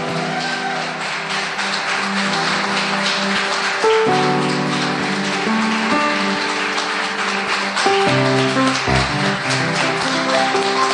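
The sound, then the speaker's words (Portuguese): An audience applauds the name of the Lord loudly and steadily for several seconds, a dense wash of clapping that keeps going while sustained keyboard chords play underneath, shifting every few seconds. “Você pode aplaudir bem forte o nome do Senhor.”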